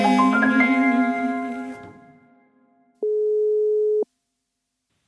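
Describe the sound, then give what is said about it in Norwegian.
A single steady telephone ringing tone of an outgoing call sounds for about a second, clear and fairly loud, after a fading musical tail, then silence follows with a faint click at the end as the call is answered. “Det er Tre ganger Hjeltnes som ringer deg for podkasten.”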